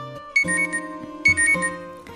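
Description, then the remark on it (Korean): An electronic alarm clock rings on the morning of a holiday, August 15, with a bright, repeating melodic jingle, two loud bursts of tones about a second apart, clear with no voices. “휴일에도 알람 소리와 함께 하루를 시작했죠.”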